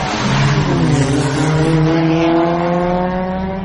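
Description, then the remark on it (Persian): Loud engines of several hatchback cars fitted with high-speed engines rev hard in a street race, climbing steadily in pitch as they accelerate. It is a continuous roaring drone with layered rising harmonics and no talking. “این صدا مربوط به ویدیویی از یک کورس خیابانیه در این کورس چند ماشین پ... که موتور پرسرعت روی اونها نصب شده با هم رقابت میکنن”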